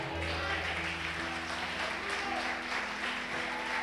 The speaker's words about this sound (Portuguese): Aleluia, você crê nisso, aplauda ao Senhor.